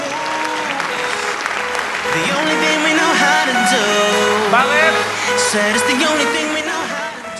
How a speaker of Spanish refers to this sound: Muy bien. Un aplauso para los tres, por favor.